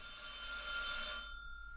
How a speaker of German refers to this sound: Na nur, Telefon? Wer kann denn das sein? Wem hast du denn unsere Telefonnummer gegeben? Niemand. Und ich will auch jetzt nicht gestört werden. Na, sag das mal dem Telefon. Jemand muss doch die Nummer kennen, sonst würde er doch nicht anrufen.